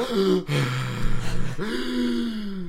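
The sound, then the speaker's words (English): A voice imitates the heavy, labored breathing of someone wobbling up a hill, with drawn-out groaning pants repeated, loud and strained, with no words spoken. “I see you walking up, and you're like this zombie because your face is burnt and you're wobbling up the hill, heavily breathing.”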